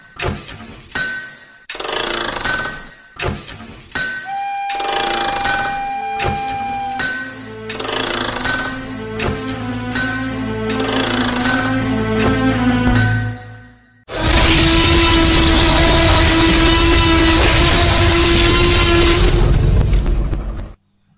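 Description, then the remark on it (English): A train sound effect for the Lightning Rail of the Eberron setting: bright bell-like dings and tonal horn notes over a rising engine rumble, then an abrupt loud, sustained rushing roar with a steady droning tone that runs to the end. No talking. “So climb aboard the Lightning Rail and join me as we look into the steampunky world of high adventure as presented in Eberron Rising from the Last War.”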